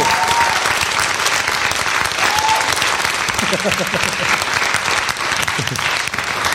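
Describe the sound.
Sustained audience applause, a dense steady wash of many hands clapping at an even loudness for several seconds, with a few faint voices and whoops mixed in.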